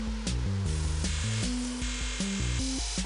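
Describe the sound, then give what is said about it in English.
Steady, dense hiss of rain falling outside runs throughout, with a low melodic tune stepping between notes over it. No one speaks. “It's raining outside.”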